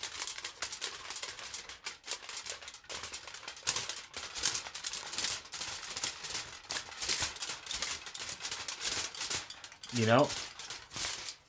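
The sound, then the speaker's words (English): Continuous crisp crinkling of tinfoil, fairly loud, running for the whole stretch with brief bursts of rustle; a voice speaks briefly near the end. “I know that sound by heart. That's the sound of tinfoil.”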